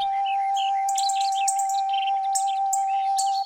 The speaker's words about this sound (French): Après un long voyage, Piaillant et cancanant de concert, les oiseaux déposèrent le chatoyant ruban d'écailles sur un lieu retiré.